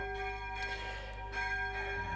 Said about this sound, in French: Allez, je vais couper parce que les cloches, c'est fort, hein, mine de rien.